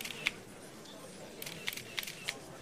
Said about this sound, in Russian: Шум, неразбериха, щелчки камер.